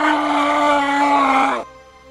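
A woman with a corpse-like body gives a loud, pained cry into a young man's face, one drawn-out wail held steady for about a second and a half before cutting off abruptly, alone with no talking.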